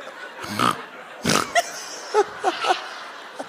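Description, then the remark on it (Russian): A person imitates a young lion's roar: two loud, raspy growling bursts, then several shorter, fainter grunts trailing off, with no clear speech. “А еще рык молодого льва вот это.”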